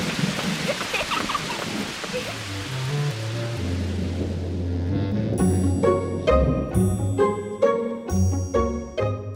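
Steady rain hisses for several seconds over a low rolling rumble like distant thunder, then fades as bright, ringing musical notes take over.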